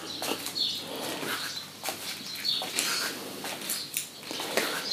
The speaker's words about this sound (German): sind also die Vögel. Gut.